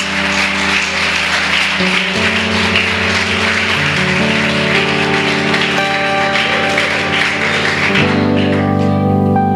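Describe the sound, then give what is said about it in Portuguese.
An audience breaks into sustained, dense applause for the Lord Jesus, steady and loud throughout, with sustained organ or keyboard chords playing underneath and shifting pitch partway through. “Uma salva de palmas para o Senhor Jesus.”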